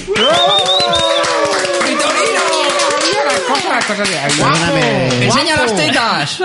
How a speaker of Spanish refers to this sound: Un aplauso para él.